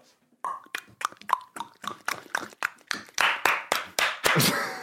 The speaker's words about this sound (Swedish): Klappa händer och klick klickar ljud i mun. Ja, det är det.